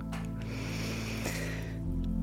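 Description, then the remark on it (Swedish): A long, steady inhale drawn in through the nose during a breathing exercise, airy with a slight nasal rasp, lasting about two seconds with no talking. “Andas in.”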